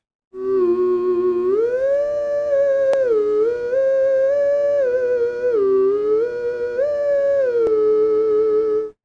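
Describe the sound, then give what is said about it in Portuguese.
A theremin-like antenna instrument, played without strings, each antenna generating an electromagnetic field that reacts as the body comes near, plays a slow melody of sustained, smoothly gliding notes with a wavering, voice-like tone, holding steady volume throughout with no one talking. “Sem corda, sem nada, só na energia. Tem... um som para você. Cada antena gera um campo eletromagnético.”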